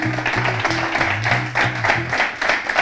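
A short burst of steady applause at the end of a quick round, dense and crackling, with a low murmur of voices underneath, lasting a few seconds at moderate loudness.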